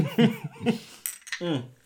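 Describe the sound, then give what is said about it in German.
A few short, bright clinks of glasses touching in a toast over a small schnapps, sharp high taps scattered between murmured voices and soft laughter. “Und damit würde ich sagen, Cheers. Cheers und Stößchen.”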